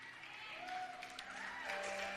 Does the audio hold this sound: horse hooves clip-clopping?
no